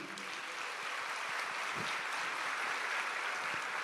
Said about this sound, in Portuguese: Eu tive o privilégio, vamos aplaudir, né?